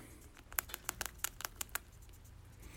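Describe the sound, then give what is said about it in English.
A rat in a cage crunches on hard food, a quick burst of about a dozen sharp, dry crackling bites, then trailing off into quiet. No one speaks. “That's the sound of a rat chomping on um, something nice and crunchy in the cage.”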